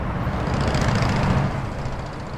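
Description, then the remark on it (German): A steady wash of road traffic at the Porte d'Ivry on the Boulevard Périphérique ring motorway in Paris in the early afternoon, with low engine rumble as cars and trucks crawl past at walking pace, holding a constant, fairly loud level with no voices. “Autos und Lkw schleichen im Schritttempo an der Porte d'Ivry vorbei.”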